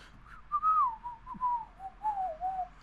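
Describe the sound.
A person whistles the short, lilting whistle tune from a movie, the pure tone gliding up and down in a few connected phrases. It is clear, with no talking over it.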